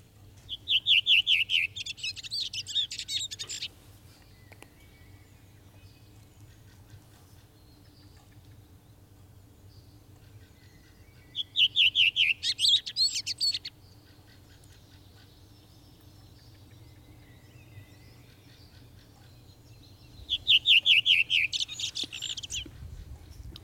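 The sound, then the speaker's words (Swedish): A redwing sings three short, bright phrases spaced roughly nine seconds apart, clear, over a steady low buzzing hum of bumblebees, with a blackbird and a fieldfare faint in the background. “Rödvingetrasten, vi kanske vill lyssna lite på den?”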